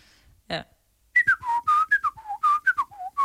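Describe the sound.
A person whistles the Nokia ringtone melody, a quick run of about a dozen short, clear notes stepping up and down, fairly loud, after a brief soft knock.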